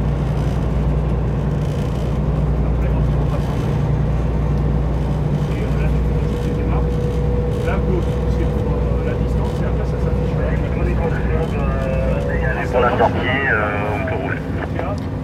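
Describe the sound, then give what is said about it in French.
The diesel engine of an 18-metre, 30-tonne boat rumbles loudly and steadily as the vessel slowly manoeuvres away from the quay at dusk, its deep throbbing drone constant throughout, with a faint tonal whine joining partway through. “Tout doucement le bateau commence à faire sa manœuvre.”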